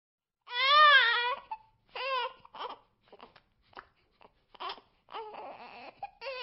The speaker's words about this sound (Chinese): 老婆，你快去看看吧，孩子哭着呢。 他今天也不知道怎么了，一直在闹，我都快烦死了。这一整天就没消停过。 那你也得管呐，就凭他这么哭着？